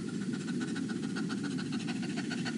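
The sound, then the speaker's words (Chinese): A person imitates a puppy's panting as a breathing exercise, with rapid, breathy huffs in a fast, steady rhythm, a continuous airy hiss pulsing quickly throughout, with no talking. “下一个狗喘，我觉得这个大家可以回去感兴趣的自己去练习一下就可以了，就是小狗喘气，就快速的。”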